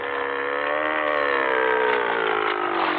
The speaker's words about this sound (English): we climbed into Red's old aluminum boat and slowly drove up the lake, staying close to shore